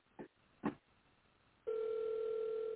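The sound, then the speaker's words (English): Two quick clicks, then a steady, buzzing telephone ring tone from an outgoing call to a woman that holds on without anyone picking up. It sounds fairly clear, with no voices. “Okay, I guess she ain't gonna answer the phone.”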